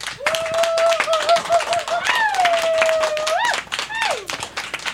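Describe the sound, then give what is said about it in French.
A crowd applauds steadily in answer to being asked who plays video games, dense overlapping claps, while a whistle-like tone or a voice rises and falls over the clapping. “On parle de jeux vidéo euh, par applaudissement. Ceux qui jouent ici à des jeux vidéo.”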